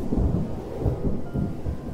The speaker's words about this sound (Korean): 그때도 이렇게 번개가 치고 바람도 많이 부는 날이었어.